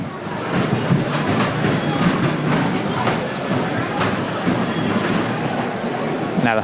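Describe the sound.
Heavy stomping footsteps of Nazarenes of the Cristo Yacente section of a Holy Week procession coming out into the street at 7:05 in the evening, landing in a steady, regular rhythm of loud thuds over a dense, continuous background of crowd murmur and voices.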